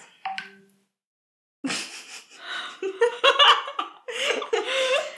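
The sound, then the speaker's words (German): A mobile phone briefly rings with a short electronic tone at the very start of a recording, then silence, followed by lively laughter and giggling from a couple of people. “Wir sollten unsere Telefone und Electronic Devices abschalten. Stumm schalten bei der Aufnahme.”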